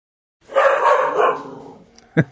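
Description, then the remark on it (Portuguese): A pet dog barks: one long, drawn-out bark that fades, then after a short pause a single sharp, punchy bark. “Claro que o meu cachorro ia esperar essa hora para começar a uhum. fazer o show dele, né?”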